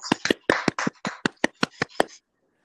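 crowd, small applause

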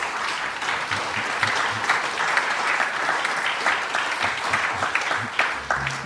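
crowd, audience applause

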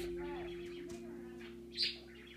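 bird, bird chirping

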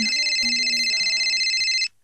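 signal or alarm, phone ringtone ringing

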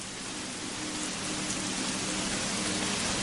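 nature, rain falling outside

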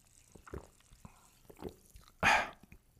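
food or drink, sparkling water poured

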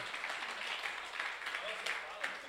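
crowd, audience applause

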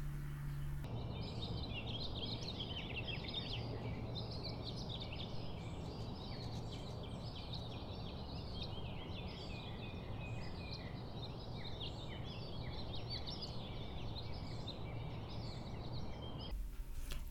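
bird, bird chirping

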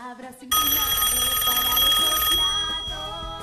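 signal or alarm, telephone ringing

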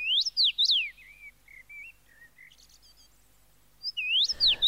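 bird, common rosefinch song

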